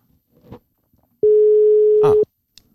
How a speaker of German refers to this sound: Donnerwetter, jetzt muss er nur noch rangehen.